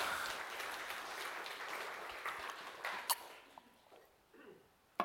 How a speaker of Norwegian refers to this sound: Gi en god applaus til disse gode karene.